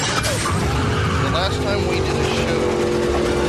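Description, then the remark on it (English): A loud, rumbling engine of a newly bought hot rod car roars steadily for a few seconds, its deep throaty growl filling the foreground while a person talks over it. “Oh, my new hot rod. Yes, I bought a new car.”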